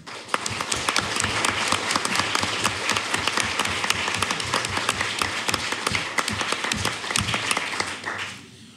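An audience at a live art criticism panel in New York City applauds the National Academy Museum steadily, a dense wash of many hands clapping at once, holding a fairly even loudness for several seconds before quickly dying away at the end.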